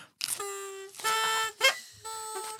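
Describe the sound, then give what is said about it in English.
Three buzzy, sustained toots from party horns, blown one after another with short gaps, the middle blast slightly longer, with a brief breathy blip between them. “you can blow your own horn if you want to.”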